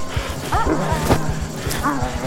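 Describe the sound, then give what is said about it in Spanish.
Dogs bark and yelp in short bursts as they move in to bite people who have fallen and do not get up, over a steady rhythm of heavy thumping, with a sharp crack or smash cutting through midway; the scene sounds busy. “pero los perros se acercan a morder a los que no se levantan, así que lentamente se pone en pie.”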